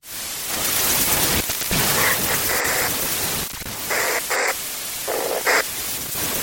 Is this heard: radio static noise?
yes